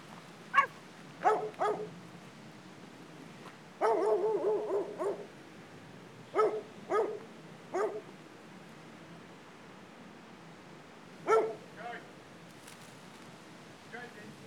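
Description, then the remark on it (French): A dog barks in scattered bursts, single woofs and quick pairs with one rapid flurry, against a steady background hiss, then a last couple of barks after a quiet stretch. “Un animal. Le chien.”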